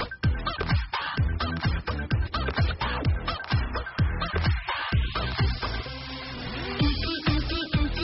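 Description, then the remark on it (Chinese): A bouncy song whose melody is carried by squawking, clucking chicken sounds, set over a steady, driving beat. It is loud throughout, with the squawks turning more drawn-out and tonal in the second half. “因为动物的叫声全世界都听得懂，没有语言障碍，这种以动物声音为旋律的手法已经在国际上备受众群津津乐道。”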